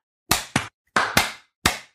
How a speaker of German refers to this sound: Okay. Jetzt hat's geklatscht. Wir applaudieren uns selber.